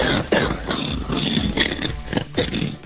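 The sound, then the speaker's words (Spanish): A run of harsh, raspy barking coughs, loud, coming in quick repeated bursts for a few seconds with no talking. “Tos, con moco o, ah. si, o si quiere tos perruna.”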